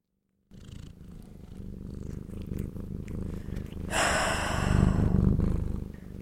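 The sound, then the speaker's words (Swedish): A cat purrs in a steady, rumbling rhythm that grows louder and breathier partway through and continues to the end, with no talking. “När jag försöker spela in en podd samtidigt som jag har PMS samt bor med två katter så kan det låta så här.”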